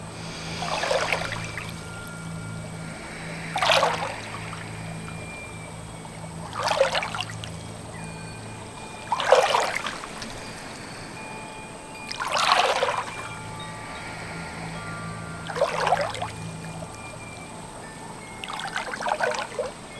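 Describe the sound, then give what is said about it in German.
Soft water swishes and splashes recur about every three seconds, seven gentle strokes of a person's hands moving through warm water, over a low steady background hum, with no talking. “Der Flick bewegt seine Hände im Wasser. Genau durch das feine Schwadern passiert um ihn herum etwas Magisches.”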